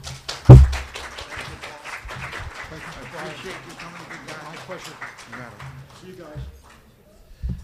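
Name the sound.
audience applause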